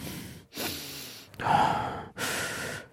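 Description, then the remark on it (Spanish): Several loud, deep breaths blown straight into a microphone, each a broad rushing burst of air with short gaps between, harsh and breathy with no talking. “Luego, no hagas profundas respiraciones en el micrófono, como esto.”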